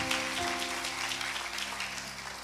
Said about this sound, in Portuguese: Vocês dão uma salva de palmas para a equipe de louvor. Vamos aplaudir a equipe de louvor. Que foi uma benção.